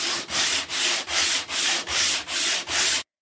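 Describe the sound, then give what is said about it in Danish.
Coarse 80-grit sandpaper rasps back and forth in eight steady, even strokes, a loud, gritty scratching with brief pauses between each pass. No voices. “Nu er korn 80. Jeg kan nemt høre forskel.”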